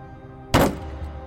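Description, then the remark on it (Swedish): A single loud, sharp slam of a teacher's cane brought down on a wooden school desk, with a short ringing decay and otherwise quiet room tone. “Madame Koikoi hade slagit ner sin käpp på skolbänken snett framför mig”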